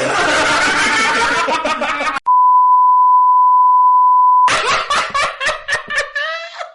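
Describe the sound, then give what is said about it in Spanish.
A steady, loud censorship bleep tone holds for about two seconds, sandwiched between bursts of hearty laughter from several people before and after. “Porque así se llama pi, miola y el pi, pues así suena todo el pi, miola.”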